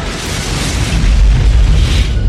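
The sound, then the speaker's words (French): A loud, sustained crash explosion with a deep rumbling boom and broad roaring noise as a dimensional spaceship crash-lands on the nearest planet, filling the whole clip with no voices. “Vélène tenta une manœuvre désespérée, s'écraser en douceur sur la planète la plus proche.”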